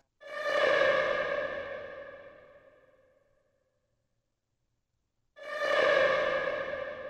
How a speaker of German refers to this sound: Und als letztes vielleicht hier aus diesem Track noch die Whale Sounds, die dann so sirenenartig äh, zu hören sind hinten in diesem äh, triolischen Teil. Einmal vorher.